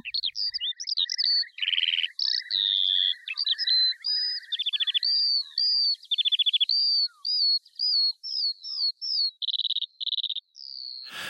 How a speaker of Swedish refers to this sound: En tidig vårfågel, sånglärkan, fick illustrera Ann-Sofie Karlssons längtan efter våren.